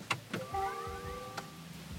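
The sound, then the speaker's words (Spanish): An electric car powering on: a couple of soft mechanical clicks, then a smooth rising electronic chime of layered tones that swells and holds briefly before another click. No one speaks. “Y lo voy a encender otra vez y me va a cargar ya para que lo escuchen.”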